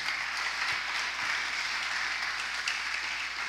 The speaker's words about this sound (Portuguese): Aqui nós servimos para a glória de Deus. Dá um aplauso ao Senhor, nós servimos.